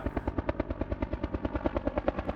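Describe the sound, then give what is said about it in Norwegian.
A rescue helicopter with searchlights passes overhead above a lake in a forest, its rotor blades beating in a rapid, steady thump-thump rhythm with an engine whine underneath, fairly loud, with no voices. “Etter ca. fem minutter treffer lyskasterne fra helikopteret han i ansiktet.”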